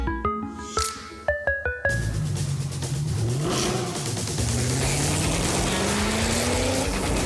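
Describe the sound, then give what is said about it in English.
A few short, bright musical notes give way to the loud engine of a Mercedes-AMG GT four-door coupe roaring and revving, its pitch surging once, then climbing steadily as it accelerates. “The GT four door coupe from Mercedes AMG. Because life is a race.”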